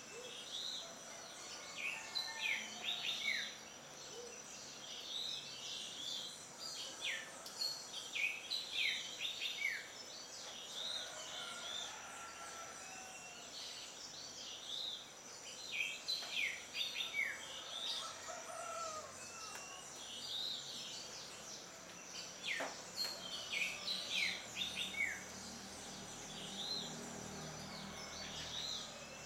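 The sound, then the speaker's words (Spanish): Many small migratory birds sing and chirp continuously, with bright, high twittering calls arriving in repeated clusters over a steady outdoor background hiss. No voices are present. “los investigadores que trabajaban con aves estaban felices porque encontraron mucha ave migratoria”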